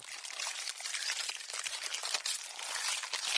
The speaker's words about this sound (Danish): Det er faktisk lyden af en myre, der spiser sukker. Myrer elsker jo nemlig sukker og honningduk, præcis ligesom du sikkert elsker slik.